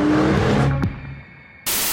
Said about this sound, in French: les GoFast, Vous savez, ces voitures qui vont à toute blinde sur l'autoroute, etc. Chargées de drogue en général.